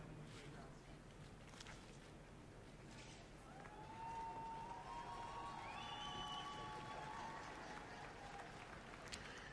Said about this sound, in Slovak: Počúvame aj výkriky v taliančine na svätého Otca.